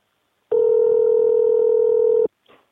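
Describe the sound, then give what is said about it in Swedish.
A steady, loud telephone dial tone holds for almost two seconds and then cuts off abruptly, followed by a brief, faint blip that could be a keypad press. “Du vet väl att du kan göra olika val genom din telefon? Som 41 fyrkant, boka läkartid nästa år.”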